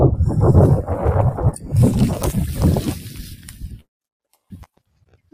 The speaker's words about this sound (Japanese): 結構風強いですね、やっぱり。そうなんですよ。ゴーゴー言っていると。